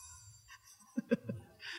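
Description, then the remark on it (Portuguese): A small bell rings in three quick, bright strikes, each note ringing briefly before fading, with a soft hiss at the end and no voices over it. “É, apareceu um sininho aqui do nada.”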